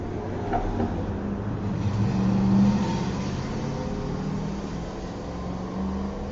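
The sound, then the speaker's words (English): A rough, rumbling engine of an old pickup work truck passes by, its low growl swelling to a peak midway before easing off as it moves away; no voices are heard. “That was a, That was an old like pickup work truck, but that shit sounded like.”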